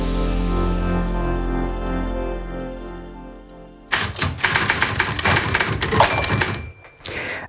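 A sustained, ringing musical tone fades out, then a mechanical typewriter clatters in loud, with rapid irregular key strikes and carriage noises for the last few seconds.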